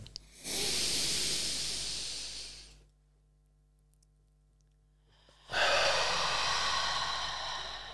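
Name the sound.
deep breathing exercise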